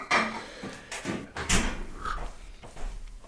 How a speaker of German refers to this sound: jetzt geht der junge Mann wirklich zum Kühlschrank. Ach, ist das toll, hier wieder in Nordhessen zu sein. Wunderbar. Jetzt mal gucken, was der Kühlschrank zu bieten hat. Ah, es klimpert